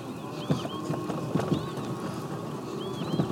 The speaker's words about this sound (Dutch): Ja, die uh, eh, kievieten maken toch ook wel ja, een heel apart geluid. Een beetje metalig vind ik het altijd bijna klinken. Kieviet, kieviet.